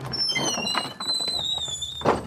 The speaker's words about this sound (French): Francis Bigelow leur ouvre tout de suite la porte.